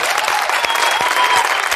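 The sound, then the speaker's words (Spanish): A steady burst of applause for Fernando Simón, a prize for perseverance, dense and continuous clapping at a fairly loud level, with no talk over it. “Pero no lo ha dicho, así que de todas formas, eh, premio a la perseverancia, un aplauso para Fernando.”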